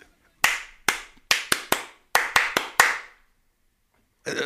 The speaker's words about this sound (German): ist die andere äh, Klatsch, dieser andere Klatschrhythmus, den ich jetzt noch nicht kenne.